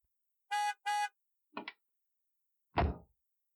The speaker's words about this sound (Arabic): سمعت ياسمين صوت سياره تتوقف